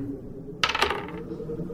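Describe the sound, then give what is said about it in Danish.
Dice are rolled for an investigation check and clatter across a table in a brief, bright rattle of quick clicks lasting under a second, then settle, leaving only a low background hum. “Uh, og I kan begge to rulle uh, investigation.”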